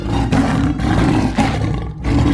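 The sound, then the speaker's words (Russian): A Persian leopard roars loudly, a deep, rasping growl that rolls on in several surging bursts with brief breaks between them. No voices are heard. “Переднеазиатский леопард.”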